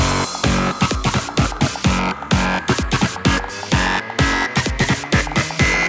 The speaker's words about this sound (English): Okay, now, we need some fat distortion. More distortion.